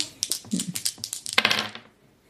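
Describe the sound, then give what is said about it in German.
Dice are rolled a second time, rattling and clattering across a hard surface in a quick burst of sharp clicks, tumbling for about two seconds before settling into silence. No one speaks. “ja, dann würfel doch noch ein zweites Mal.”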